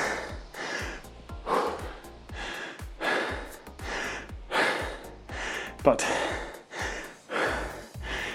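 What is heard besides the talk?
heavy breathing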